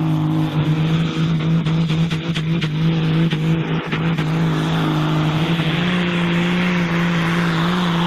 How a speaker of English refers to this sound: Um, they have these womp womp tractors over there.